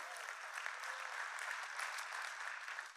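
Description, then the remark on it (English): An audience claps steadily for its family at SCI Chester, in partnership with God Behind Bars, a dense, even wash of many hands that holds throughout without speech on top. “Show them some love, family. Clap for them.”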